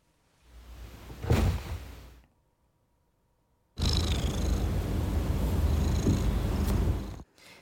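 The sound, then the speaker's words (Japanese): A cat purr sound effect is played in two stretches: a shorter rumbling burst, a brief silence, then a longer, steady purr. The sound is fairly loud, with no talking. “あのさっきの猫と一緒に流してみようかあのベッドから猫いける”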